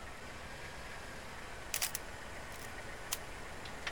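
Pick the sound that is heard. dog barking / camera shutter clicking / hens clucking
camera shutter clicking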